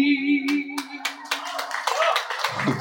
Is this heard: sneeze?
no